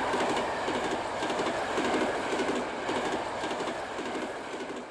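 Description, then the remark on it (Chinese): An electric tram rolls steadily along its rails, a loud continuous rumble and hiss with faint rhythmic clacking from the wheels, no voices, easing off slightly toward the end. “不久，他们就坐上了电车，离开了奥克兰。”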